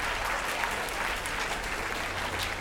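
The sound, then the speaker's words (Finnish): A theatre audience applauds steadily, a dense wash of many hands clapping at once, sustained and even in loudness throughout with no voices standing out. “Sehän on teatteri.”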